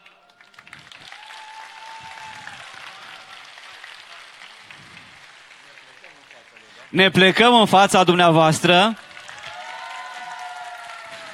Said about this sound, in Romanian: Aplauze încă o dată pentru Părintele Constantin Necula.